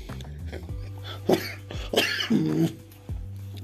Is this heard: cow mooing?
no